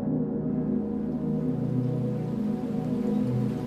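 Raindrops patter steadily onto a lake's water surface under dark storm clouds, a dense, even wash of small splashes with no voices, continuous throughout.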